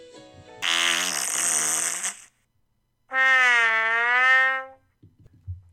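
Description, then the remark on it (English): Two loud, drawn-out farts, each lasting over a second and separated by a short silence. They are buzzy and brassy, the second wavering in pitch. A few faint rustles follow. “or those sort of uh, farty vegetables to get you to do it.”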